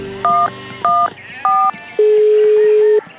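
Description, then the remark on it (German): Three short, evenly spaced keypad beeps as a phone dials the police emergency number 110, followed by a single long, lower steady tone lasting about a second. “Sie wählt schnell die Notrufnummer 110.”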